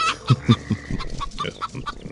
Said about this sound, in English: Police are searching for an aggressive chicken accused of engaging in foul play at a Louisiana bank.